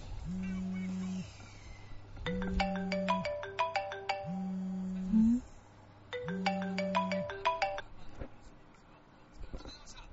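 A mobile phone ringtone plays a repeating electronic melody over a steady low tone, cycling about four times in roughly two-second phrases, fairly loud, then stops.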